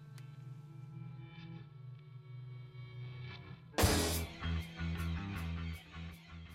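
A distorted rock song plays on Radio Revolt: a droning, fuzzy guitar intro builds for a few seconds, then the full band crashes in with loud drums and gritty, overdriven guitars.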